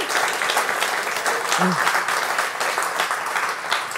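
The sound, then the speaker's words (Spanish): A crowd applauds steadily, dense clapping filling the whole stretch at a consistent level, with a brief vocal murmur surfacing midway through the noise. “Hay grandeza cuando tú puedes estar en medio, si le vas a dar el aplauso.”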